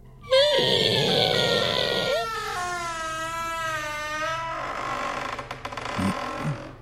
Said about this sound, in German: Ihr hört Stöhnen aus dem Keller.